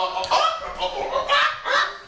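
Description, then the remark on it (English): A pet bird makes odd, chicken-like clucking and honking calls, four harsh bursts in quick succession, fairly loud. “is making uh, strange chicken something noises.”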